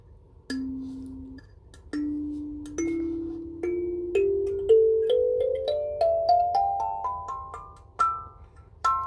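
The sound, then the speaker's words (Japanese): Plucked keys of an instrument, arranged radially with the middle key as do and the following notes alternating left and right, ring out one by one in a rising scale. Each bright note decays quickly as the next follows, and the pace quickens toward the end. Clear, with no talking. “出ますねこれ真ん中がうでそっから左にで、右にみ、左にファ、右に沿って、なんかこの、放射線状に並んでますね。”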